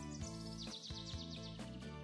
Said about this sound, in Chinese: 他们来到了森林，小趣和车车欢快的跳下了车，大奇跟着搬下了梯子。森林里传来了鸟儿欢快的叫声。